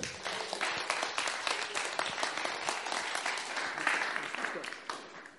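A church crowd at Church in the Peak applauds steadily to welcome a speaker, many hands clapping in a dense, bright wash that holds for several seconds before tapering off slightly at the end.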